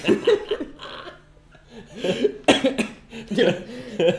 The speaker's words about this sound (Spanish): me ha atragantado.